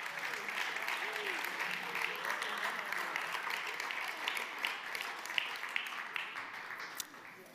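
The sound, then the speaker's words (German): Sustained, reverberant applause from a large crowd in a church hall for staff members and kids, a dense wash of clapping at steady loudness, with individual claps standing out toward the end and faint voices murmuring underneath. “So, und jetzt entlassen wir euch mit einem kräftigen Applaus, euch Mitarbeiter und Kids.”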